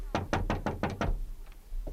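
Six quick knocks rap on a railway carriage door in a fast, even burst, fairly loud, followed by a single fainter tap a moment later.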